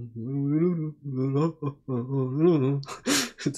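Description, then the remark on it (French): A voice hums sustained, wavering tones in three squeezed bursts, imitating an accordion with the mouth, then ends with a sharp breathy gasp. The sound is fairly loud, with no other sounds around it. “c'est pas du tout un bruit d'accordéon, mais comment tu veux faire un bruit d'accordéon avec tes bouches, mais C'est pas possible.”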